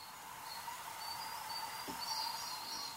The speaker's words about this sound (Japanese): ただオオルリとカジカガエルの鳴き合う声を聞いていると山の湖ののどかな音の風景に癒されます